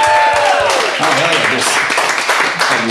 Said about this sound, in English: lusty applause for that.